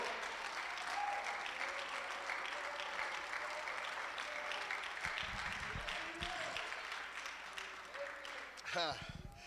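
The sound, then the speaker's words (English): A church audience claps hands for the Lord in a steady, dense wash of applause that continues throughout, with faint voices mixed in and a brief louder swell near the end. “Come on, clap your hands and love the Lord.”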